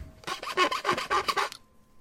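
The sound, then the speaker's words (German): A file rasps back and forth in quick, rhythmic strokes, about six or seven harsh, gritty scrapes in a row before stopping abruptly. No voices are heard. “Ich bin, ich bin wieder da und hab eine Pfeile.”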